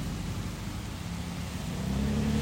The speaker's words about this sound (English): In a rarity, traffic. Not much, but more.